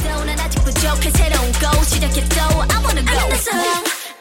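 Loud, upbeat K-pop intro with a heavy sustained bass, punchy regular beats and bright synth melody lines, the low end dropping out abruptly just before the end.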